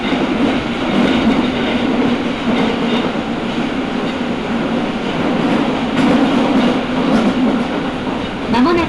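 A Nagoya Municipal Subway Higashiyama Line train, running from Takabata toward Fujigaoka, rumbles steadily along the track between stations as it approaches Chikusa station. It makes a loud continuous roar with a low hum and faint rhythmic clatter from the wheels, and there are no voices.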